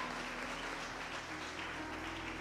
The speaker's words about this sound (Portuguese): Vamos dar uma salva de palmas para os nossos atores. Obrigado pela introdução.